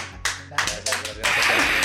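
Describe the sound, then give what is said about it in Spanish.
A few sharp, scattered claps come first, then quickly swell into steady, full applause from several people, given as a tribute to a person called an example of life, that continues loudly to the end. “Para no están donde estén, si están en su oficina, si van en el tráfico, si están en su casa, si ya están empiernados, tómense 10 segundos, un aplauso a este ejemplo de vida.”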